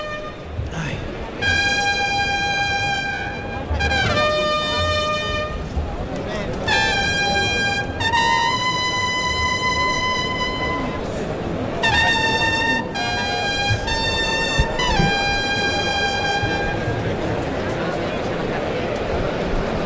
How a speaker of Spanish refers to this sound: Ya, se abre la puerta de Toriles. Clarinazo. Tercer toro.